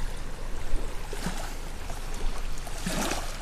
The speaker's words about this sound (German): Ihr hört ja das Wasser schon plätschern?